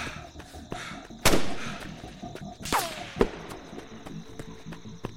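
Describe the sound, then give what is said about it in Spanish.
Two sharp, loud gunshots crack out about a second and a half apart, the second trailed by the falling whistle of the bullet and a smaller snap, over a steady background hiss. “Otro disparo largó su estruendo.”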